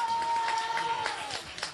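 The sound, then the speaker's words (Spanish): An audience applauds the drummer of a band in a dense, steady wash of clapping with some crowd noise, while a thin, steady high tone runs underneath for about the first second before fading. “Un aplauso para Danny.”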